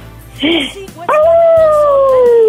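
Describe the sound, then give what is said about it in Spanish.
A red wolf in North Carolina howls: a short yip leads into one long, sustained howl that slowly falls in pitch and carries loudly to the end. “Esto es Carolina del Norte. Escúchame, ¿ser un lobo rojo? soy una loba”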